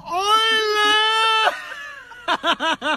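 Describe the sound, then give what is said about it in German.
A voice imitates an owl call: one long, high, wavering note held for over a second, then, after a short pause, four quick rising-and-falling hoots in a steady rhythm. “Ein Eule, Warak!”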